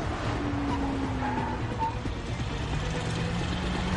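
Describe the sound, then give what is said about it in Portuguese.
A heavy truck driving close behind a car, its engine rumbling loud in a steady low drone with road noise and a faint rising whine, continuing unbroken throughout. “Sai pra lá com esse caminhão!”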